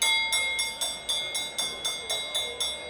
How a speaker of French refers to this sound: Soudain, les cloches retentissent, annonçant le départ des chevaux.